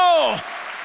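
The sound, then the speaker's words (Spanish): A shouted voice swoops downward in pitch, then gives way to an audience applauding for God during a sermon, a dense, even wash of clapping that continues steadily for the rest of the short moment. “Dale fuerte ese aplauso al que vive.”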